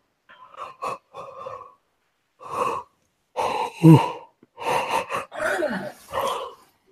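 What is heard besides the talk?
people yawning together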